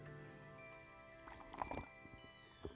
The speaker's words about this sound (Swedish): Ah, jag sörplar för att du ska höra hur härligt jag har det.